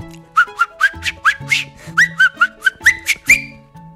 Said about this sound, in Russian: Закончив мытье мотоцикла, он повесил кусок замши на забор и, не оглядываясь, зашагал по двору на минуту задержался возле крыльца веранды и начал насвистывать уже другую песню. «Мне домой давно пора, надо ехать со двора».